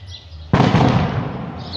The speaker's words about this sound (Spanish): No, su puta madre, hay balazos por ahí.